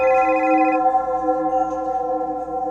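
A telephone rings steadily with a sustained electronic tone, fairly loud, filling the short stretch without pause and with no one talking.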